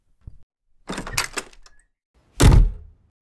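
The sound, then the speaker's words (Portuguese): A door creaks and rattles open, followed a moment later by a heavier thud as it shuts, with no one speaking. “Abre a porta e fecha a porta.”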